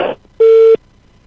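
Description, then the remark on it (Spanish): A single loud, steady electronic beep from a phone during a phone call, lasting about a third of a second, with a brief burst of noisy sound just before it and silence after. “Sí, hace un ruido tu teléfono.”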